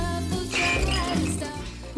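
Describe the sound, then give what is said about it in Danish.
Glasses clink together in a toast, with bright ringing chimes layered over a loud, continuous low rumble that fills the short moment. “Skål!”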